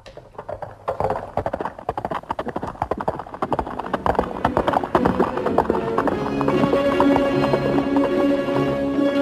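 Horse hooves clip-clop in a steady, brisk rhythm of sharp repeated knocks, later joined by a swelling tonal music bed that grows louder toward the end.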